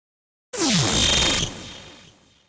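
A sci-fi Dracon beam weapon fires upward at a leopard with a sudden loud burst after a moment of silence, a bright sizzling blast with downward-sweeping tones that holds for about a second, then fades into a ringing tail.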